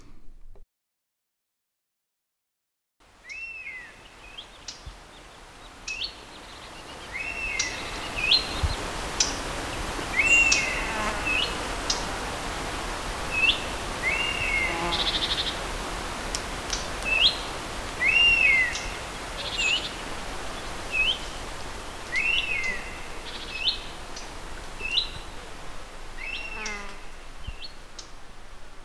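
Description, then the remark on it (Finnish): European honey buzzard calls: thin, plaintive whistled notes repeated at irregular intervals over a steady outdoor hush, with other small chirps scattered around them, moderately loud. “Kuunnellaan hetki mehiläishaukkoja.”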